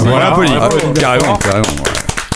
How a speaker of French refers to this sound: déjà, déjà, on le remercie énormément d'être venu. On l'applaudit même.